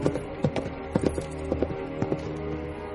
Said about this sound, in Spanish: La duquesa cabalga entre el arbolado nocturno.